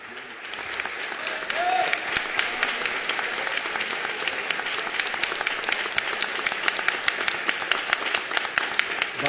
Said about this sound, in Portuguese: Eu vou pedir que vocês que amam, por favor, nessa festa, os que amam apenas, ninguém vai estar olhando para você, fiquem em pé comigo e vamos aplaudir esse casal como gratidão em nome de Jesus.